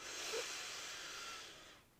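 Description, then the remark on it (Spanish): A single steady inhale drawn through the nose during a guided breathing exercise, soft and airy, lasting under two seconds before fading out. Quiet, with no talking. “inhala por la nariz”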